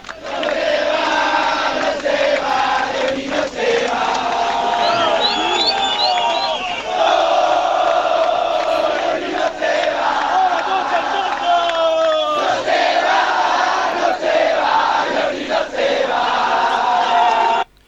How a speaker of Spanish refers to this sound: Ahora este, usted me dice cánticos, nada más que eso, de los hinchas.